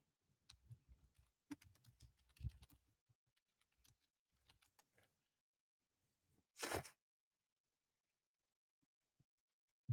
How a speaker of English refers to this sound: Uh, I'm typing to you real quick,